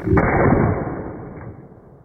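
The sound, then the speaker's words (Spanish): A single gunshot from a Smith & Wesson ("Smith West") revolver held in the hand: one sharp, loud crack followed by a low, rumbling echo that fades away over about two seconds. No voices are heard. “El dedo índice de la mano en el gatillo.”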